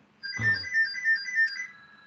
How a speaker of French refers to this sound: Ah, téléphone m'arrête dans ma tirade.